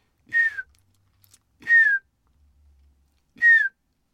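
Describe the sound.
A person whistles three soft, descending piping notes, evenly spaced about a second and a half apart, imitating a bullfinch's mournful call to lure the birds, clear with no talking.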